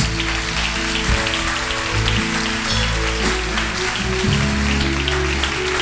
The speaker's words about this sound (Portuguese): Vamos aplaudir o nosso Deus, em nome de Jesus.